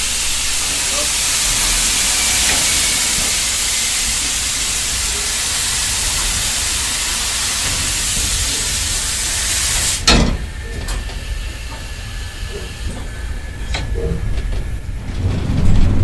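A steam locomotive lets out a loud, steady hiss of steam for about ten seconds, which cuts off abruptly, leaving a lower rumbling, clanking roll of the engine.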